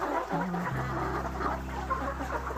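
A flock of laying hens being farmed for eggs clucks continuously in a busy, overlapping chorus, with a steady low mechanical hum running underneath throughout.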